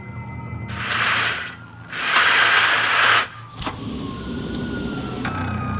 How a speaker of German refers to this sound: Dazu eine Kakophonie von Sirenen.